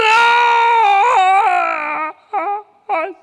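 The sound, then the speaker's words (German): A long, loud, wavering scream held for about two seconds, then two short, sharp cries in quick succession, unaccompanied by any talking. “dann hörst du den Schrei der Ewigkeit, wo Eva nach dem Apfel greift”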